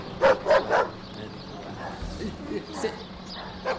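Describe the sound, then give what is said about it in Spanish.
A female dog barks three times in quick succession, sharp, followed by quieter background noise and faint voices. “Eh, señor, perra, no morde.”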